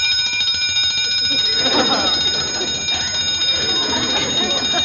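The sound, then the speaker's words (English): An alarm clock rings loudly and without pause, its metallic bell clattering steadily for the whole stretch, held right at a sleeping man's ear in a back room at four in the morning to wake him. “He looks at the alarm clock, turns it on to try to wake Barney up by holding it right down his ear.”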